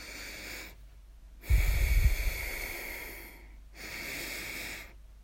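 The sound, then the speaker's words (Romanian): Deep, audible breaths drawn in during a breathing exercise, with long airy inhales separated by brief pauses, one with a rough snorting start. No talking. “Odată ce ne obișnuim, putem să inhalăm mai mult aer”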